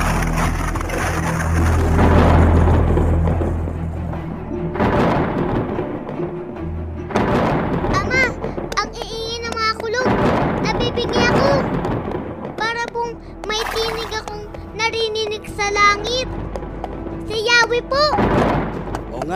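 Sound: thunder rumbling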